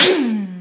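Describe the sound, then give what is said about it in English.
A single loud sneeze: a sharp, breathy burst followed by a short voiced tail that slides down in pitch and fades. “oh, thank you. Bless me.”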